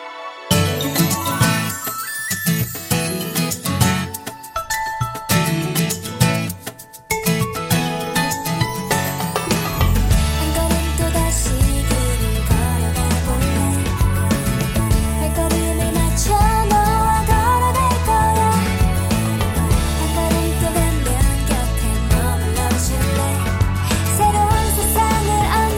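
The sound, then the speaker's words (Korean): A listener-requested pop song plays loud and steady on a radio show, opening with light chiming, tinkling tones before a full band with heavy bass and drums comes in around ten seconds. There is no talking. “어, 유승지 민투빈님께서 신청하신 노래 들려드리고 오겠습니다.”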